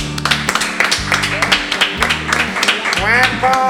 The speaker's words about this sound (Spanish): así que yo creo que se merece un buen aplauso, ¿no? Vamos a dárselo.